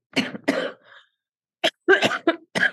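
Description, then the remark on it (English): A person coughs repeatedly: two harsh bursts, a brief pause, then a quicker run of sharp, rough coughs, with no talking. “I hope this tea don't make me cough the whole time.”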